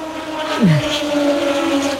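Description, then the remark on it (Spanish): Moto2 racing motorcycles scream past during practice sessions at the Jerez circuit. One bike's high engine whine drops sharply in pitch as it passes, while another sustained, droning engine note carries on loudly throughout. “Esto ya ha sonido desde fuera, pero eso me hace que yo no pueda oírte absolutamente nada cuando empiezan a pasar por aquí las motos.”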